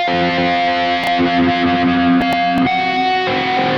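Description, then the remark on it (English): Heavily distorted electric guitar, using Archetype, with a delay pedal placed before the distorted amp, loud and continuous, with thick sustained harmonics and notes smearing into a chaotic, buzzing wash; a few sharp pick attacks cut through. No talking. “Yeah, because the amp's so distorted, you run a delay pedal and it just kind of goes a bit crazy.”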